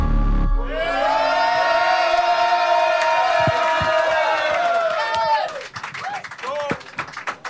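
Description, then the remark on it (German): A crowd at a rap battle roars and cheers loudly for both MCs after the main match, with scattered clapping and whoops, a sustained wall of noise for about five seconds that then thins into scattered shouts and applause. “Also nochmal ein extra Lärm für beide.”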